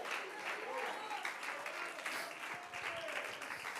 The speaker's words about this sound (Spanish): Alguien puede aplaudir mejor la presencia de Dios. Alguien puede alabar su santo nombre en esta hora. Alguien que no se incomode con la palabra, alguien que se goce, que le aplauda más hermoso y le dé la gloria.